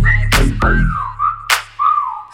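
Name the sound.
whistling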